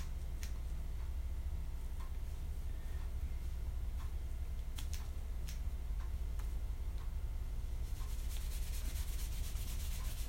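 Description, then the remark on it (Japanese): Scissors snip through hair in a bathroom at home, a series of sharp, crisp clicks at irregular intervals, with soft rubbing and rustling throughout that grows busier toward the end. No one speaks. “バスルームで髪を切る”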